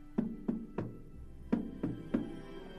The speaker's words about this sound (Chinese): 就在这个时候，克里姆先生听见前门传来很小的敲门声。